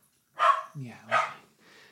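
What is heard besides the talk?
dog barking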